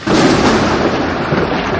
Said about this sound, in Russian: Если, ну, блин, не знаю, это должна молния в меня вот сейчас ударить